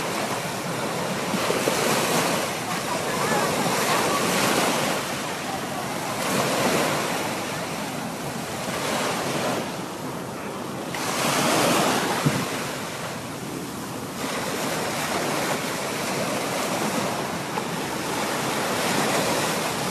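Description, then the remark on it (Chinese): Loud sea waves crash and wash in continuously at Baicheng beach in Xiamen, China, in the late morning, swelling into a fresh roaring surge every few seconds over a steady hiss of surf and some wind rumble, with no voices. “上午十点五十八分，厦门的白城海边上，左边是厦大的白城厦门，右边是一个岛，当然还有海，海浪的声音特别大。”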